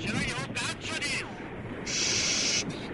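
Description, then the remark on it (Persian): Harsh, crackling static from a failing walkie-talkie radio hisses in broken bursts, with a garbled voice breaking through in choppy fragments before a steadier wash of hiss takes over near the end. “این بیسیم زبون بسته جونای آخرشه”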